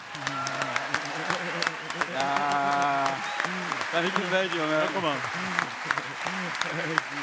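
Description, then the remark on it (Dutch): A crowd applauds steadily throughout to welcome footballer Siem de Jong, a dense wash of clapping with a few sharper claps standing out, while men talk and call out over it. “Applaus, hier is die Siem de Jong.”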